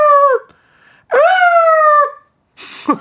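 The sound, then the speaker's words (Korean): A voice imitates the siren of an emergency call-out vehicle with two loud wailing tones that rise and fall, then a short vocal burst at the end. “긴구출동 지금 네, 이 사이렌 소리잖아요 예, 비켜주세요.”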